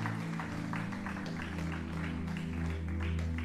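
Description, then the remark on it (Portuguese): An audience applauds Jesus with dense, continuous clapping that holds steady throughout, layered over sustained low musical tones underneath. “pode dar um aplauso a Jesus.”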